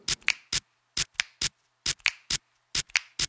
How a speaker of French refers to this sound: Lui, il fait de la musique avec ce qui lui tombe sous la main. Il claque des doigts, il frotte sa vaisselle.